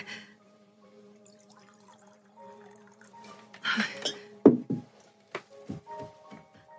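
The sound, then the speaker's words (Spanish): In a scene from the film adaptation of Stephen King's novel Misery, liquid is poured into a glass to refill it for a toast. A steady ringing trickle grows into a louder splashing gush, followed by several sharp knocks and clinks of glass being set down. “Arruiné tu hermoso brindis. ¿Podrías perdonarme? Espera, déjame llenarla.”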